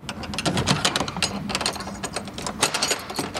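A heavy iron key grinds and clicks in a lock, a close, continuous run of metallic rattles and ratcheting snaps with a low mechanical rumble underneath, no voices.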